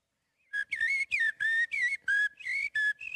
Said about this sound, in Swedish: Det där är koltrast. Mm. Den är ju en klassiker. Det, för, det var ju den jag försökte härma. Mångas favorit.